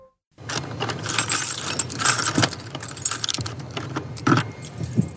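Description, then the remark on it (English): A ring of keys jangles and scrapes as they work the top and bottom locks of a heavy apartment door, metallic clinks and rattles continuing steadily for several seconds with a few sharper clicks. No one speaks. “You have to kind of twist the top lock just the right way and the bottom lock and then kind of push with your shoulder.”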